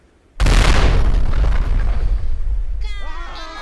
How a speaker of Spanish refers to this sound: una de aquellas enormes balas de cañón en hierro que salía de aquellas bocas del infierno como puras brasas impactó de lleno en el capellán y seis marineros más de cubierta provocando una explosión en el castillo de popa.